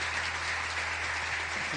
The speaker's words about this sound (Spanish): Pero escúcheme, primero, no, no, primero los aplausos